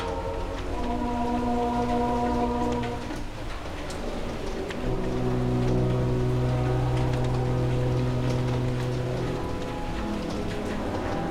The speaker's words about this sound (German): Die dicken Tropfen des Frühlingsregens hämmerten gegen die Bleiglasfenster und in den kurzen Augenblicken, in denen die Sonnenstrahlen durch die Wolkendecke zu dringen vermochten, wurden sie durch die Farbschichten sichtbar.